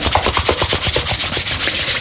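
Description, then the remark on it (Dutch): Hands rubbing briskly together to warm them, a steady, rhythmic swishing of about ten quick strokes in two seconds, fairly loud and dry, with no talking. “Wrijf even in je handen.”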